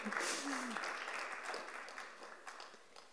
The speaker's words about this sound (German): Ja, du darfst gerne klatschen.